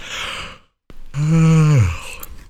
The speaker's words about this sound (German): Ja, ich versuche mal in meiner ein bisschen gebrochenen Morgenstimme vorzulesen, ehrlich gesagt. Vielleicht einmal kurz äh, gähnen und dann geht's los.